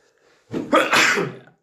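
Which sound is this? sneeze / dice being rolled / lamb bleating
sneeze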